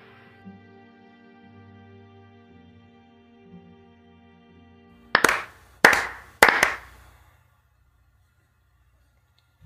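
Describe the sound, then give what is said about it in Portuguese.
Three loud, sharp hand claps, made to sync a recording, ring out spaced roughly half a second apart after a soft sustained tonal hum; near silence follows. “Eu nunca escuto a palma de ninguém.”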